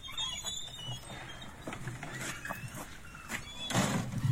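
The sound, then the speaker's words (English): A dining lodge screen door creaks open with a drawn-out squeaky hinge, then swings back and claps shut near the end, with no one talking over it. “Is it the dining lodge door? It is the dining lodge doors.”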